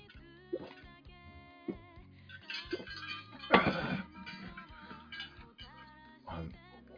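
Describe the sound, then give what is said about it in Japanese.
Glasses of shochu mixed with water clink together in a toast, one bright ringing tap partway through, heard over a steady bed of tonal background music with a few other light knocks. “えー、焼酎の水割り。はい。いただきます。乾杯。乾杯。”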